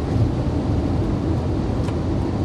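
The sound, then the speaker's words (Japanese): Steady, deep rumble of a car's interior while driving, a continuous low road and engine drone at an even loudness with no voices over it. “この車の騒音の中で喋るのって結構喉使うので一時期は本当に喋れない時期とかありましたけど”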